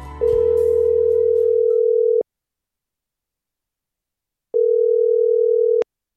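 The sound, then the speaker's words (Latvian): A telephone ringback tone of a call placed at seven in the morning on a workday: two steady, mid-pitched electronic beeps, the first about two seconds long over a faint background rumble, then a pause of silence before a shorter second beep. “zvanu agrā darbdienas rītā, pulksten septiņos, kad abi vēl ir mājās.”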